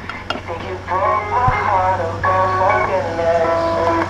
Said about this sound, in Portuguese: O som do altifalante de um carro de venda de frutas e legumes escuta-se da porta da mercearia da Fernandina